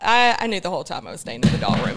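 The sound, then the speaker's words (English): A phone drops with a single sharp thud partway through, cutting in over a person talking; the impact is short and solid, and speech continues around it. “We had a phone drop.”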